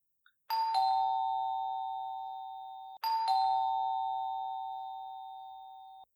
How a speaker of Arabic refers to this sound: وعندما لم يجب احد دق شنشن الجرس للمرة الثانية والثالثة